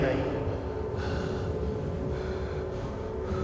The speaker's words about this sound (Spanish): El joven siguió caminando hasta llegar al cruce de dos avenidas y de pronto sintió una respiración muy cerca de él.